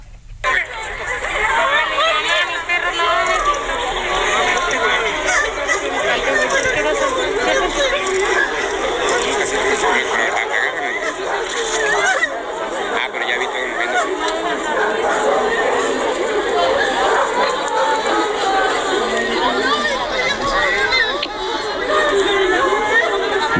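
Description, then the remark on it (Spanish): A panicked crowd of mothers and fathers crying and calling out as they rush out of a suspended Mass during an earthquake tremor, many overlapping voices forming a loud, continuous commotion with no single speaker standing out. “que escucha son las madres y padres llorando. Estaban en la misa, se suspendió la misa, salieron corriendo del lugar.”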